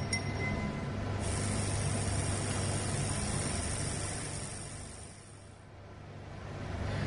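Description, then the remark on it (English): A steady electrical hum with a broad hiss over it, like an ultrasonic sonicator bath running with hair samples being washed in a soap solution, holding constant for several seconds, dipping slightly then swelling again. No one speaks. “Just going to give these a little stir and then we're going to put them in the sonicator.”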